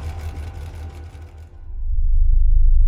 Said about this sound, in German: Der riesige Dieselaggregator, der mehrere Tonnen wiegt, der springt an. Das heißt, die Nähmaschinen hämmern weiter und gleichzeitig hört man jetzt auch noch einen Dieselaggregator den Strom produzieren für Rana Plaza.